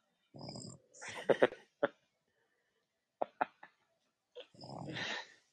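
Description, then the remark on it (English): Gurgling snores of a woman asleep in a chair with her head tilted to the side: a rough breathy snore, then wet clicking gurgles and short sputters, a pause, more clicks, and another raspy snore at the end. No talking. “Oh, she's gurgle snoring.”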